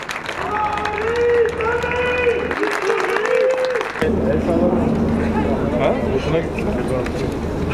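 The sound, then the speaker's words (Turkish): A large crowd at a ceremony at Anıtkabir applauds Erdoğan continuously while voices chant slogans in unison, the rhythmic shouting rising over steady clapping throughout. “Erdoğan'a kalabalıktan sloganlar, alkışlar yükseldi.”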